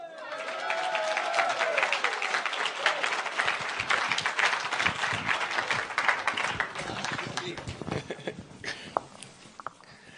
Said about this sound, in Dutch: En nou een handklap voor Jezus allemaal.